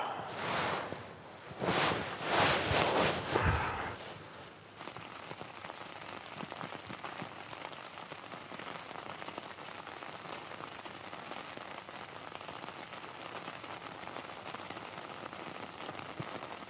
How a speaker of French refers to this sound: La pluie sous la tente, ça j'adore Oh oui, plaisir.